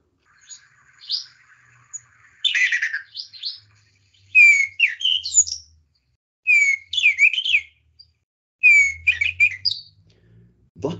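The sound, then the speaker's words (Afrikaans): A Diederik cuckoo calls repeatedly and loudly, each burst a run of rising, whistled notes, with short pauses between phrases and no other voices. “En dan is daar nog 'n alombekende om ons huise Dian Frederik.”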